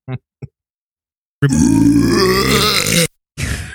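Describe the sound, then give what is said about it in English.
A long, loud, deep burp rumbles for over a second, preceded by two quick short noises and followed by a brief vocal sound. “He hates clear- burps.”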